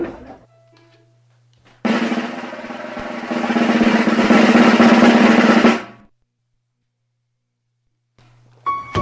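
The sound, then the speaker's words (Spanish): A short burst of country music plays on Radio Pasión for about four seconds, a dense, full sound with a steady low tone that swells louder before cutting off abruptly into silence. “Música country”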